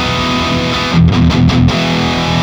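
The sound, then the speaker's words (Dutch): A heavily distorted electric guitar rings out in a sustained, buzzing tone, with a brief burst of choppy strummed chords in the middle before the held note continues. Loud, no talking. “Maar zo hoor bij die andere gitaar, dat, dus blijft dat nog iets meer overeind.”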